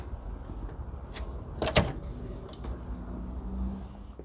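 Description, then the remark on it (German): A chocolate shop door on the Magnihalden is opened and held as people walk in, with a short clatter and thump, then quieter rustling and a faint low hum against steady outdoor background noise. “Und wir gehen jetzt rein. Ich gehe mal vor und halte der Karin mit dem Mikrofon die Tür auf”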